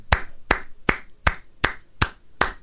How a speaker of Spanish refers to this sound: ¿Por qué estás aplaudiendo eso, güey?